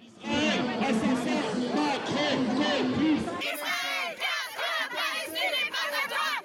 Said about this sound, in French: La foule réunie a repris les traditionnels slogans pro-palestiniens.